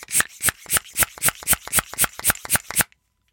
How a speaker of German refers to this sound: Puh, soll ich, soll ich wirklich raten? Eine, eine Luftpumpe.